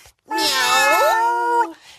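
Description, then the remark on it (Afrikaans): A person imitates a cat with one long, drawn-out meow, rising and then falling in pitch, loud, with nothing else around it, as part of a Simon-says-style animal imitation game. “mouse is 'n kat.”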